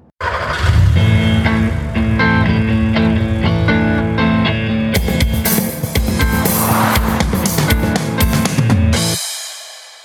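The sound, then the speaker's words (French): A loud, energetic intro jingle of music layered with revving car-engine sounds plays alone for about nine seconds, then cuts off abruptly, leaving a brief fading tail. “Eh oui On a un jingle Il est pas bien ce jingle Bon ben je remercie euh, vraiment beaucoup euh, l'abonné qui euh, nous a envoyé ce jingle, tu vois.”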